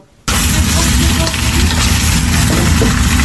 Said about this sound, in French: Les pommes de terre rissolent en cuisine avec Céline Lévesque.